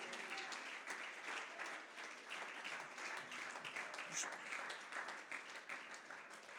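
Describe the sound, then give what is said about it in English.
A church audience breaks into sustained applause, giving the Lord a hand clap of praise, dense overlapping hand claps filling the space steadily for several seconds, with a few faint voices mixed in beneath the clapping. “Come on, give, give him a hand clap of praise.”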